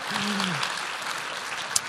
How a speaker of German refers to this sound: Applaus